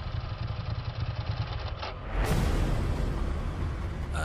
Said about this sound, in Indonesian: Ah, nah apa sih ini motor? Pakai mogok gini. Men, motor gua mogok di dalam kolong jembatan. Kenapa harus mogok di sini? Bensin full. Aki juga baru ganti. Apa businya?